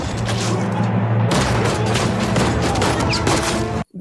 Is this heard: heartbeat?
no